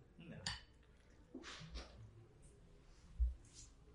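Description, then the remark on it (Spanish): Several sharp clinks of a spoon against a dish come at irregular moments, with soft mouth and chewing noises and a dull thump in between, as people eat a meal while recording, and others murmur faintly in the background. “Como que, estamos masticando. como que nos masticamos, como que la cuchara.”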